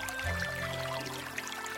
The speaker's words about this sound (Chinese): 听，泉水叮咚作响；